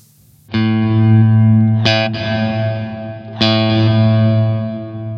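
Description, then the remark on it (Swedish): An electric guitar played through a reverb pedal with pre-delay set to maximum, three loud, sustained chord strikes ringing out bright, the reverb blooming in just after each attack. “man, hinner höra tonen innan man hör reverbet.”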